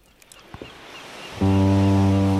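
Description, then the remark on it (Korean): The horn of a regular passenger ferry bound for Marado, off Jeju Island, South Korea, blasts suddenly after a quiet stretch of strong wind and faint thumps under dark clouds, holding one loud, steady, low tone through the end. “우리는 하늘의 심통을 뒤로 하고 비만 안 오면 괜찮을 거라 애써 위안하며 마라도 마라도행 정기 여객선을 타러 갔습니다.”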